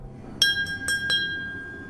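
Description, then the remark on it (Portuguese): A crystal glass is tapped four times in quick, slightly uneven succession in the workshop of a glass museum, each tap leaving a clear, high ringing tone that hangs and slowly fades afterward. No voices. “Quando faz este barulho, temos a certeza que é cristal, não é?”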